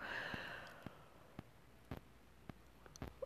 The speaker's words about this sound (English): Oh, I'm so sorry. I keep yawning. I'm tired this morning.